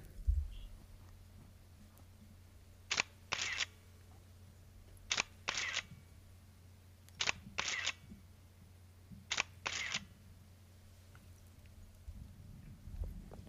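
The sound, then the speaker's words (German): A Mamiya ZD digital medium-format SLR camera shutter fires four times, roughly two seconds apart, each release a crisp double clack of mirror and shutter, clear against a low background hum. “Es handelt sich um eine Mamiya ZD digitales hm. Mittelformat Spiegelreflex.”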